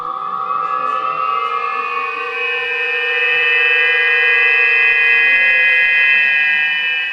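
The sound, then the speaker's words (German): Bamboo whistles fixed all around balloons of different sizes, laid out on the ground as an artwork, sound as air is fed into the balloons through hoses: a dense, droning chord of several steady tones, swelling slightly and sustaining without pause, loud, with no voices. “Ballons in unterschiedlicher Größe, an denen rundherum Bambuspfeifen befestigt sind. Wenn über Schläuche Luft in die Ballons geleitet wird, klingt das so.”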